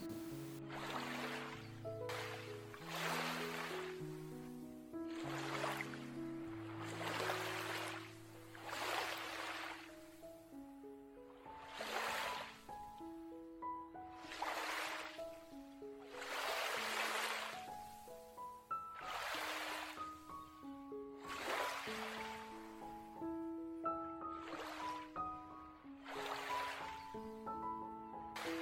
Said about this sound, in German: schau dir nochmal die Wellen an, wie sie kommen, verweilen und wieder gehen.